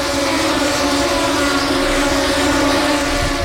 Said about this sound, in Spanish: El sonido espectacular que llega desde el circuito de Jerez con el arranque de esta segunda carrera del Gran Premio de España prueba de Moto 2.